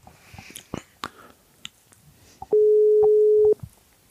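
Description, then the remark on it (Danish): A few soft clicks and handling noises, then a loud, steady telephone busy tone sounds for about a second before cutting off, with a faint click after it, heard when calling a phone-in caller named Thomas. “Jeg tror, at Thomas er optaget.”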